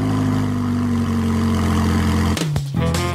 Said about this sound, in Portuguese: Ouça a diferença. Ouviu? Com o estrondo de motor, seu carro vai fazer o mesmo ronco das grandes marcas.